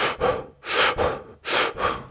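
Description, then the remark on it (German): A person imitates rapid breathing through the mouth, with about five quick, airy in-and-out breaths in a steady rhythm, fairly loud, with no talking. “Dass ich anfange, durch den Mund und auch ein bisschen schneller zu atmen,”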